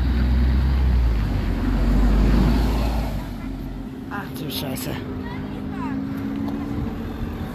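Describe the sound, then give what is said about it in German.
Motorway traffic noise heard from underneath the motorway: a heavy, steady low engine rumble that swells for the first few seconds, then eases to a softer drone while a voice exclaims over it. “Das klingt wie eine Autobahn.”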